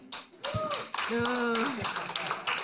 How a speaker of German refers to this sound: Dass unser Jubel nicht nach Jubel klingt. Kommt, lass uns mal Gott einen Applaus geben.